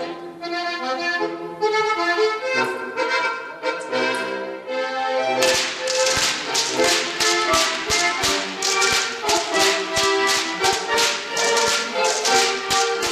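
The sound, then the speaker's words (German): Music plays while Bavarian Goaßlschnalzen whip crackers crack whips in a quick, steady rhythm. It is a rapid series of sharp, loud snaps that starts a few seconds in and keeps time with the tune, a tradition combined with music since about 1960. “Das Geiselschnitzen mhm. hat schon ewig äh, Tradition, nur die Kombi mit der Musik erst so um 1960.”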